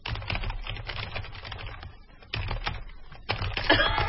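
Rapid, continuous typing by a guest coordinator on a computer keyboard with a small mat underneath, a dense stream of crisp key clicks with brief pauses between bursts, and no voices.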